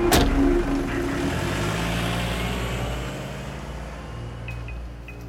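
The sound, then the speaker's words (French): A waiting car drives steadily toward the Sofitel in Bangkok, its engine a continuous low rumble with road noise that stays fairly loud throughout, with no one speaking. “Victor monte dans un véhicule qui l'attend, direction le Sofitel.”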